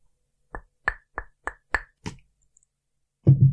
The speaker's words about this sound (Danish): Det lød det lød mærkeligt. Det lød, som hvis man slog på glas.